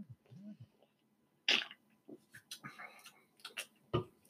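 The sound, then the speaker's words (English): Containers of IPA beer clink together in a toast, a sharp knock followed by a few lighter taps and rattles, fairly loud, with faint murmuring voices around them. “Cheers. Clank them together.”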